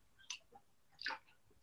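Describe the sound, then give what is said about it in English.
A quiet sip of water: a small mouth click followed by a soft slurping draw and faint wet clicks, with no talking. “in a second, I will drink, take a sip of water.”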